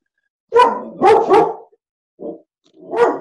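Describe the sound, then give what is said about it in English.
A dog named Dobby barks loudly: three sharp barks in quick succession, a short softer woof after a pause, then one more full bark. No one speaks. “He doesn't like it.”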